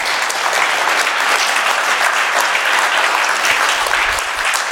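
Steady, loud audience applause for the beautiful decoration fills the whole stretch, a dense crackle of many hands clapping at an even level without pause or buildup.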